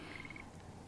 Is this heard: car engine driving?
no